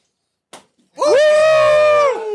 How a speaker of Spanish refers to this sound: ¿Quién Ah, ¿quién me hace un spank? Mi novia.